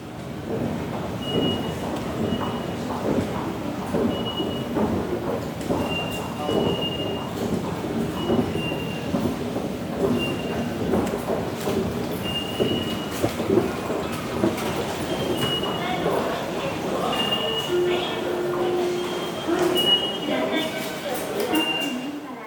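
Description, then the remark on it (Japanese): A subway train runs underground, rumbling steadily with a dense, continuous roar, thin metallic wheel squeals flickering in and out, and indistinct voices murmuring beneath the noise. “地上走ってる電車の方がねなんか普通だって思っちゃいますからねそう考えると地下鉄ってやっぱり乗っても乗っても乗り慣れないとこがあるっていうか”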